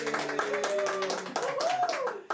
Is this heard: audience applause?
yes